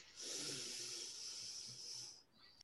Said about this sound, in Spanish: Y vamos a tomar una respiración bien, bien, bien profunda. Inspira.